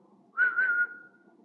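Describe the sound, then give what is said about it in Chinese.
A single shrill traffic police whistle blast, about half a second long, holding a steady high pitch with a slight warble before trailing off over a faint low background murmur. “如果我们不听话，他就会用警哨发出尖利的声音。”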